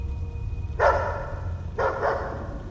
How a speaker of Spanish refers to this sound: Momentos después, de repente mi perrita comenzó a ladrar. Como era un local y no había ventanas, el sonido se encerraba y eso hacía su ladrido más fuerte y me despertó.